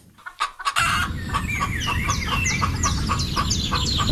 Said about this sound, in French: On se retrouve aujourd'hui à Mansigné. Nous sommes à la ferme du Long-Réage, par euh, le champ des poules qui nous entoure.